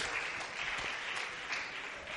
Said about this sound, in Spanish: Denles aplauso al Señor. Amén.